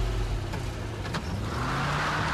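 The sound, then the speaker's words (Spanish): A car engine hums steadily and revs up with a rising pitch, loud throughout, with no voices, as a man gets into his car and drives away. “Se subió a su auto sin decir más nada y se fue.”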